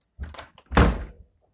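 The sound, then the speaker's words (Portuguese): A door is pushed shut: a short scrape and rattle of movement, then a solid, fairly loud thud as it closes, followed by quiet. “Então eu fechei a porta ali com um certo medo.”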